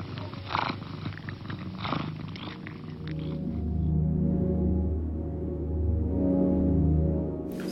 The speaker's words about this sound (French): Tu veux pas ronronner un peu, chou Ronne pas sur commande Babine.